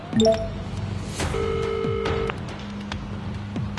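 A phone call being dialed: a few quick electronic beeps, then a steady ringing tone that holds for about a second before cutting off, over a low background hum.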